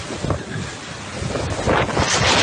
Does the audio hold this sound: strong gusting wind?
yes